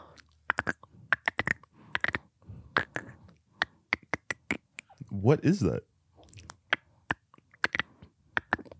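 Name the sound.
voice imitating a dolphin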